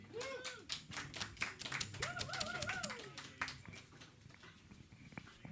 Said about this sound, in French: Et pour débuter cette soirée, s'il vous plaît, mesdames, messieurs, une bonne main d'applaudissements pour un certain barbu, euh,